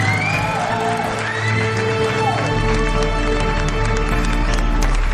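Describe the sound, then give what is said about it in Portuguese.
A loud, busy intro jingle with gliding synth tones over crowd-like cheering and shouting, ending in a heavy, sustained bass rumble; it fills the whole few seconds without pause. “Caralho, de vinheta, filha da puta!”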